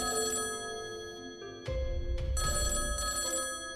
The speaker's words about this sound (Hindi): इसी उधेड़ बुन में थे कि इतने में ही टेलीफोन की घंटी बजी